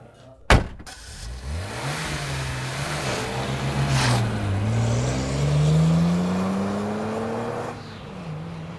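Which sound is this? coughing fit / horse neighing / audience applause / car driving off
car driving off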